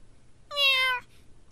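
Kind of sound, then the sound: animal, cat meowing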